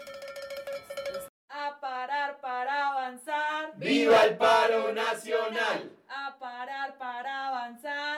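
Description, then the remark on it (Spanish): Metal cooking pots are banged in steady rhythmic bursts during a national strike street protest in Medellín and Bogotá, Colombia, in November 2019, ringing, with a louder, denser stretch of banging and crowd noise in the middle before the regular clanging resumes. “Por ahora, el país está asimilando que acaba de vivir dos semanas de optimismo callejero, en las que no solo se hizo escuchar con voces de viejos y jóvenes, sino que aprendió a reconocerse en el otro y en el sonido de la cacerola vecina.”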